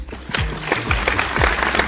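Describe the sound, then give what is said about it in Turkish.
A short burst of applause: many hands clapping in a dense, steady patter that stays fairly loud throughout, with no voices. “Yani alkışlamak istiyorum artık.”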